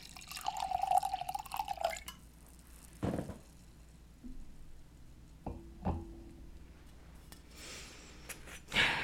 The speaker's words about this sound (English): But that's how I'm looking at it pour me a little bit more wine.